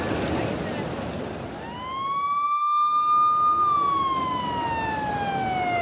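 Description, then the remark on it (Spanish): An ambulance siren sounds in one long wail, sweeping upward and then sliding slowly back down, loud and clear above a steady rumble of road noise, as the ambulance responds to an accident with an injured man. “En un momento envío una ambulancia.”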